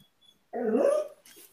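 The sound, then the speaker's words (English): A single drawn-out dog bark, somewhat whiny at the end, sounds at moderate volume, followed by a brief quieter rustle. “Sorry, now my dog's uh, got something to say.”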